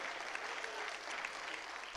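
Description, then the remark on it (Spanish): A church audience claps as an offering of praise to God, a dense wash of many hands applauding at an even level for the full two seconds, with no voices standing out. “Dale su ofrenda de palmas a Él.”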